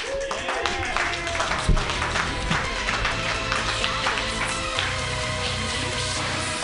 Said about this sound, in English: Put your hands together, everybody.